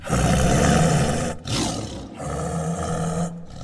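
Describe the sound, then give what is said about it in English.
A tiger lets out loud, deep roars, two or three long rumbling bursts with brief pauses between them and no voices. “The tiger roared his loudest roar, showing all his terrifyingly sharp teeth.”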